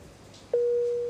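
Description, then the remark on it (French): An ICU patient monitor's pre-alarm tone, signalling a reading below a pre-critical threshold but not yet the critical alarm, starts abruptly and holds as a steady, loud, mid-pitched electronic beep over a faint room hum, with no talking. “Ça, c'est l'alarme pour dire qu'il y a une. C'est une sorte de pré-alarme.”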